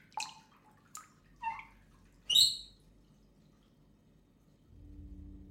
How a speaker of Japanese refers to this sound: シャワーヘッドから水滴が垂れていましたシャワーの線はしっかり閉めたつもりでしたでもきっと私の締め方が悪かったのです